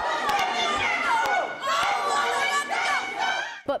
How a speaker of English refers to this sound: The two cabinet secretaries persisted through many disruptions during the hearing as anti war protesters shouted, ceasefire and save the children of Gaza.